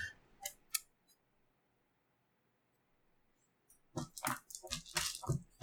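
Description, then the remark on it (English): A few sharp clicks, then a pause, then a busy burst of dice clattering and rattling together as someone rummages through dice kept in a dice tray to find a good one. “Where's my good dice? There it is.”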